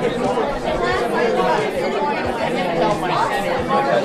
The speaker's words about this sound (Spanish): Lo que se oye es un gentío, un jeború.